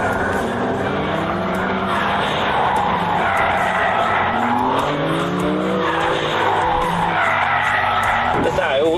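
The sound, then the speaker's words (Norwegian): A BMW car drifts on a track with tires skidding and squealing continuously while the engine revs up and down, loud throughout, with a sharp rising screech near the end. “Bilen vil gi deg en oversikt over hvor flink du er til å drifte fra null til fem stjerner, til og med vinkel.”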